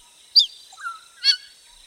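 Grey parrots of Gabon chattering from the highest branches in a forest, several metres overhead, a few sharp, squawking calls with softer whistled notes between them, with no voices.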